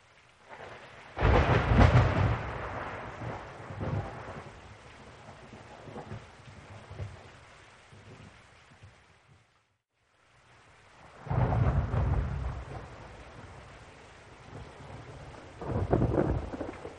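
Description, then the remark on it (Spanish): Steady rain hisses throughout a thunderstorm as loud thunder rumbles roll in three times, with a brief silent break midway; no one speaks. “¿Es que iba a haber tormenta? La idea de la lluvia y los fuertes vientos, del avión como una astilla en el mar del cielo,”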